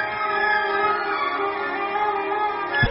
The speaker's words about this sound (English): 1989. Uh, well, is that supposed to be the music of 2020? We're going to be listening to this this space music then.